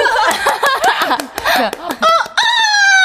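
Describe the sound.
Someone imitates a rooster with their voice: a run of choppy, warbling vocal bursts, then a loud, sustained high-pitched crowing call that holds steady to the end.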